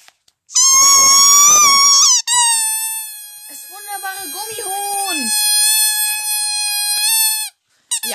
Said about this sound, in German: wir haben hier so einen Gummihund, das quietscht immer rum.